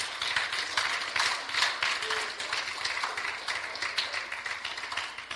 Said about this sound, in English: Come on and give God a hand clap of praise.